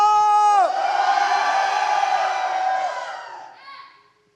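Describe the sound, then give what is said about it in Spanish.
A crowd lets out a loud, sustained shout of jubilation, voices whooping and cheering together for a few seconds before the roar tapers off and fades. “A ver, yo quiero saber cuántos aquí pueden dar un grito de júbilo.”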